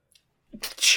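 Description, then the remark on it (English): A single sneeze: a quick intake of breath followed by a sharp, hissy burst of air, fairly loud, with no talking around it. “Bless you.”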